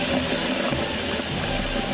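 Steady, loud rushing of running water, like a tap or hose pouring at full flow, filling the whole two seconds without a break.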